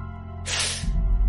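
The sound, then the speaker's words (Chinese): A balloon shaped like an old man, punctured, deflates with a loud, breathy hiss that bursts in suddenly and holds steady for under a second, joined toward the end by a low rumbling flutter. “这个气球放气的时候所发出的声音，倒像是一声长长的叹息。”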